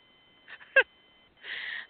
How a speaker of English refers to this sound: and he is a baby barn owl. Have you seen a barn owl? Oh, well, I love, they got a fucking heart for a face. they are. They're so adorable.